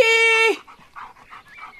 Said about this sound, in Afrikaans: Wat is dit nou weer met die hond?